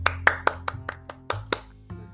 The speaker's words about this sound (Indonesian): tepuk tangan gue tadi tuh sendiri